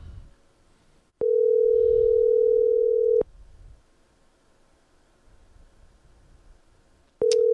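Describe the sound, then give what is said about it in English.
A phone ringback tone while calling a guest: one steady two-second ring, a pause of about four seconds with faint room noise and rustling, then the next ring beginning. Clear, with no talking. “All right, and we're going to hear it ring here.”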